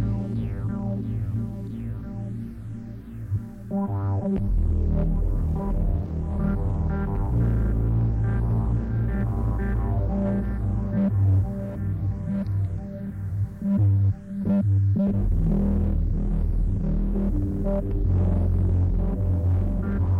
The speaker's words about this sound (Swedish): Men de gör även en modul som heter Lo-Fi Junkie. Den ger ett riktigt gött svaj klipper lite höga frekvenser och pushar midden så det låter ja, lo-fi helt enkelt.